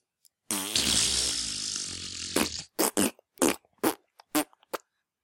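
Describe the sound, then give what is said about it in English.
A voice imitates a fart echoing as in a bathroom, with one long, loud, buzzy blast lasting about two seconds, then a quick run of short, sharp bursts before it stops. “Can I do a god sound fart? Go for it. It's like an echoey bathroom.”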